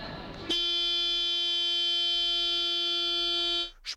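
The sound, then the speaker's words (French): The horn of a car on display in a shopping mall blares in one long, unbroken blast lasting about three seconds as someone dozes on it, loud, its steady tone cutting off abruptly after a brief moment of background murmur. “Je m'endors sur le klaxon d'une voiture exposée dans une galerie marchande.”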